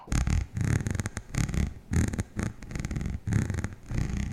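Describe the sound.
A cat purrs steadily in frustration, a low rumbling vibration swelling and fading in a regular rhythm of about seven breaths, with no talking over it.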